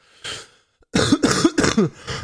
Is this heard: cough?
yes